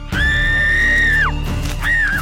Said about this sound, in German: Da sieht sie plötzlich etwas und lässt einen lauten Schrei los.